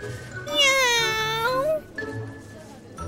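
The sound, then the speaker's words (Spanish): A person voices one long, drawn-out meow, imitating a cat, its pitch dipping and then rising before it cuts off into quieter background sound. “¡Guau! Digo, ¡miau!”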